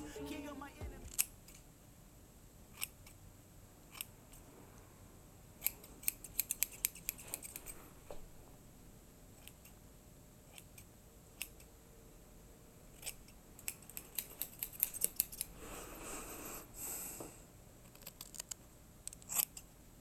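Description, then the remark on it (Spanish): Crisp scissor snips come in quick bursts of several cuts, pausing between clusters, as hair is cut in a haircut, recorded as holophonic binaural sound, with faint rustling and soft murmurs in the background. “Ahora que suponemos que tenés auriculares puestos, te invitamos a escuchar un corte de pelo con sonido holofónico.”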